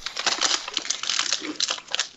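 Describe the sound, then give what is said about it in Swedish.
Dense, crackly rustling and crinkling, like handling a plastic or paper wrapper, with irregular bursts of bright noise for a couple of seconds and no speech. “Vad fan, är ett jävla prassel idag alltså.”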